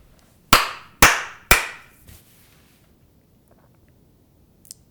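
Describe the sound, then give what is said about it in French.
Three sharp hand claps for syncing a recording on a Zoom H5 recorder, in quick, even succession and loud, each with a short decaying ring, followed by a faint fourth tap and near silence. “Après, quand tu synchronises, il est très content en première d'avoir les trois claps.”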